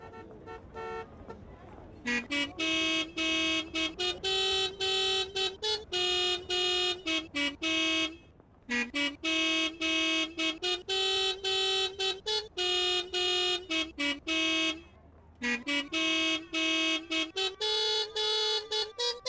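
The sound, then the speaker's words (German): Loud car horns honk out a melody as drivers play a horn concert, a sequence of sustained tones and short toots in a steady rhythm, with brief pauses between phrases and no talking. “Sie haben so viel Spaß an ihrem Hubkonzert, dass sie gleich schon das nächste Musikstück anstimmen mit ihren Hupen.”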